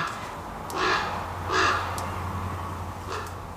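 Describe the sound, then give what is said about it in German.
Three harsh, drawn-out calls from a kea, a New Zealand parrot, ring out at a steady pace, loud, over a low constant hum with no one talking. “Am Heidelhof werden auch Keas beforscht. Das sind neuseeländische Papageien. Und die hören sich so an.”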